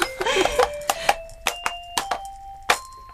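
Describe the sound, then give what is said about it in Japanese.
A Baby Einstein Discovery Light Bar baby toy plays a bright electronic melody of chiming, bell-like notes in a steady sequence as it is turned, with brief clicks and rattles from the toy being handled between the tones. “どうなるのかなと思ったこうや回すと、こうやって音楽が流れて。”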